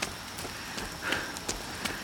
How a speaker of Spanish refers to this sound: Mi camisa está empapada, apretada contra mi pecho y abdominales. La lluvia es cálida.